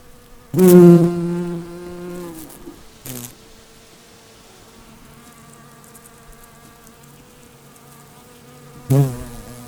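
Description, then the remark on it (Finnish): A bumblebee buzzes at snapdragons in a small meadow at the crossing of Aatenharjuntie and Apilakuja in late August, a low, steady drone, loudest in a strong burst near the start, then humming more faintly and wavering in pitch before swelling briefly again at the end. “Leijonankidoissa käy kova kuhina vielä elokuun lopullakin. Kimalaisia, mehiläisiä, monen eri lajin kimalaisia.”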